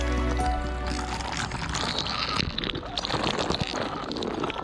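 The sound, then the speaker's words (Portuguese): Cold water from a backyard well poured over a family member bathing at a home in the interior of Ceará, Brazil, a steady splashing and gushing that continues for several seconds with a low rumble underneath, no voices. “O banho da família com a água fria que vem do poço.”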